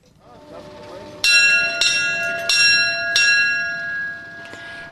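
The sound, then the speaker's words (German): A bell rings four times in an uneven rhythm, each bright metallic strike ringing out and overlapping the last, over faint outdoor background and a low murmur. It is rung at the shore of Lake Lauerz, just outside Lauerz, to call a boat to fetch people over to Schwanau island. “Wenn man auf die Insel Schwanau über will, dann kann man hier läuten und dann wird man abgeholt.”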